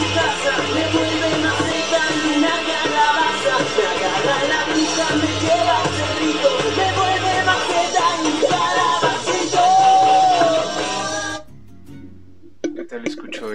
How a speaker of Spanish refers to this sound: Entonces, aquí les voy a poner un fragmentito igual de la misma canción, del mismo son Jarocho, La Bruja, pero en rock.